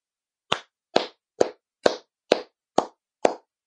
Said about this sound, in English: are you clapping? Are you clapping?